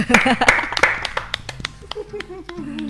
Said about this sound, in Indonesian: iya, tepuk tangan.